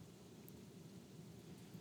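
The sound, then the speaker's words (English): Steady rain hisses faintly in the background over a low, continuous rumble of thunder, with no voices and no distinct individual drops standing out. “Um, I'm gonna try to finish this up though because it's raining and we're on a roll, and I hope that that's not annoying to the recording.”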